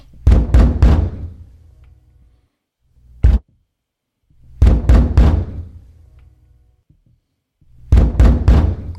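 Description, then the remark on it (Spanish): Heavy knocking on a wooden door in three loud bursts of rapid blows, separated by pauses, with a single isolated thump in between, booming, no voices. Three slaves knock on the door of Calpurnia's house on the north side of the Palatine Hill in Rome. “Del lado norte del monte Palatino, tres esclavos golpeaban la puerta de la casa donde Calpurnia esperaba un milagro.”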